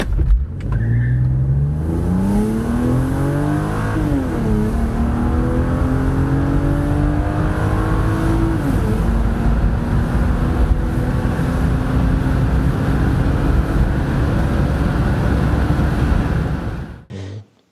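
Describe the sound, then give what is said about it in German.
A Mercedes C 36 AMG accelerates hard on a short test drive, its engine revs climbing through several gear shifts before settling into a steady drone, loud and continuous, with no voices, until it cuts off at the end. “Und jetzt machen wir mal eine kurze Probefahrt.”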